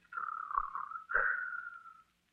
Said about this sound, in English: Hey, Cleo, cut out that snoring.